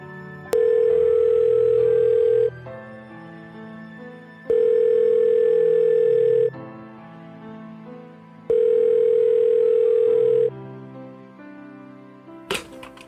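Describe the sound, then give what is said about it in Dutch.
Three long ringback tones sound on an outgoing phone call, each about two seconds long with roughly two-second gaps, clear and steady over faint background murmur. “We, kijken wel of hij opneemt.”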